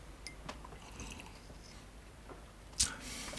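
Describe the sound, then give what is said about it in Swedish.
Quiet liquid sounds of people sipping slightly cold mulled wine from cups: a few soft slurping sips and small wet clicks, with one sharper, louder slurp near the end and no talking. “Det här kan vi sitta och smutta på nu liksom, under mm. avsnittet.”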